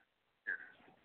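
A single loud crunchy bite into a Jimmy John's sandwich with lettuce and pickle, near the microphone, followed by a brief wet chewing smear that fades quickly after a moment of near silence.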